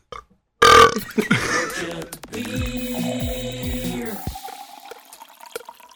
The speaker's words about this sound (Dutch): nou, wil dat boertje nog?